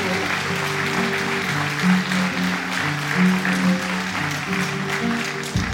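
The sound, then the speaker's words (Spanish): Steady, dense applause from a crowd for all the youth, a continuous crackling wash of clapping lasting several seconds, with sustained musical notes from an instrument playing softly underneath. “quiero pedir un aplauso por toda la juventud.”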